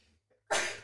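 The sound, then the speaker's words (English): A single sudden sneeze bursts out after a brief near-silent pause, loud, with a sharp onset and a breathy, noisy release that tails off quickly. “Bless you.”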